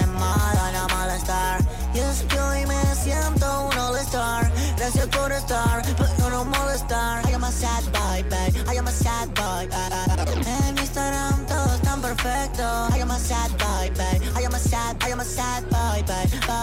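A trap song plays loud and close for the whole stretch, with a steady punchy beat, deep bass and layered melodic tones running continuously.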